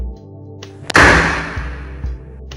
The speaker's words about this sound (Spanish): Sin decir una palabra más, tomó mi ropa y se fue de la habitación. Hasta que escuché el portazo reaccioné.